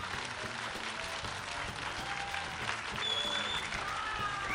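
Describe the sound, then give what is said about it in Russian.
Sustained concert audience applause welcoming a singer after a song, a dense wash of many hands clapping steadily and loudly for several seconds, with faint crowd murmurs and a whistle rising near the end. “Дорогие друзья, поприветствуйте, пожалуйста, очень громко”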